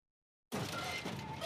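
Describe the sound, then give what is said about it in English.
After a moment of silence, a sudden light crack of something breaking inside a package that has fallen to the ground, followed by about a second of soft, scratchy crunching noise. Fairly quiet, with no voices. “I heard a light crack inside.”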